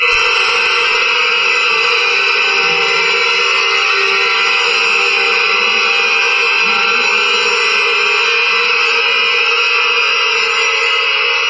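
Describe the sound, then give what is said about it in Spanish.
Dissonant contemporary string orchestra music, Penderecki's Threnody for the victims of Hiroshima of 1945: a dense, shrill wall of sustained high clustered tones that holds steady and loud for the whole stretch, with no voices and no clear rhythm. “Penderecki el treno en memoria de las víctimas del Hiroshima de 1945, que cuando uno conoce el título realmente sí que parece que tiene sentido, sí que parece que puede estar escuchando los gritos o las alarmas que pudieron acontecer en aquel momento”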